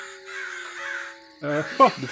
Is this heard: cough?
no